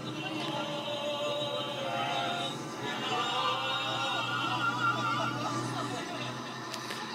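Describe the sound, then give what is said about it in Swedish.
Steady engine drone and road rumble fill the cabin of a moving bus carrying a group from Stockholm on the way to Åre in summer 2007, a continuous, fairly loud hum with faint indistinct chatter blended underneath. “Här eh, åks det buss.”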